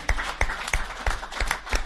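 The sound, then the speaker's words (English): Hands clap for a band in a steady, even rhythm, about six sharp claps in under two seconds, moderately loud with no talking over them, more like a few people applauding than a full crowd. “Let's all applaud ….”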